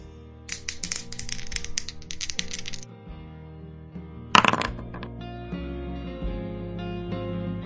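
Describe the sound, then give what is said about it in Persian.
Dice rattle in a quick clicking burst for a couple of seconds, then land with a sharp clatter and a few small bounces on a wooden backgammon board, over a steady musical backdrop. “امروز تخت آوردم بازی کنیم فقط به شرط که جرزنی نکنی تو تاس میریزی یا من تو بریز”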